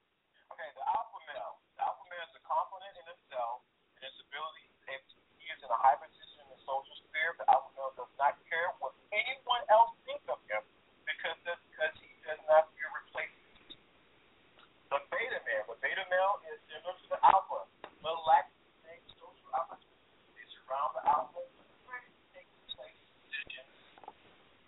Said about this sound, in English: You breaking up. phone is breaking up.